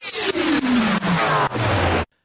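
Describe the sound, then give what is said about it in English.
A loud, high-revving IndyCar engine roars past, its pitch sliding steadily downward through several brief gear-shift dips over about two seconds before cutting off abruptly. No one speaks. “Now, some of you have asked why I do the transition noise with the IndyCar engine noise.”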